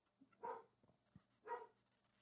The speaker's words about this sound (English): Apologies if you can hear my dog in the background.